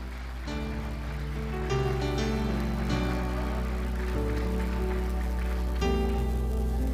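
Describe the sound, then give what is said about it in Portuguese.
An audience applauding steadily for several seconds, a dense, unbroken wash of clapping over sustained musical chords, with no voices. “Ah, Jesus, se for aplaudir, aplauda bem forte.”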